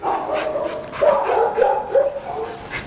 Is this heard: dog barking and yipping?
yes